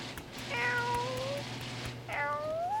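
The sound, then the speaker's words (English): A cat meows twice, two clear drawn-out calls with a slight upward bend, over a low steady background hum, with no talking. “Hey, come here. You want some tuna salad?”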